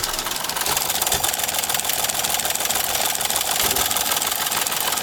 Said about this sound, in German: Der Fernschreiber, Achtung, das Wählwerk. Und dann fängt er an zu rattern.